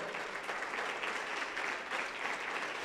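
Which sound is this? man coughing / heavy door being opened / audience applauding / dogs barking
audience applauding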